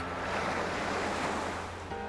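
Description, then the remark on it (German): Heavy surf crashes continuously over a reef, breakers metres high coming in quick succession: a loud, dense roar of breaking waves with a low rumbling undertone and some wind noise, no voices. “Die Brecher donnern in hoher Frequenz Meter hoch über das Riff.”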